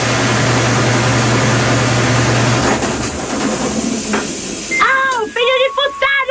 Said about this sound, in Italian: Sentite? È finito il lavaggio! La lavatrice.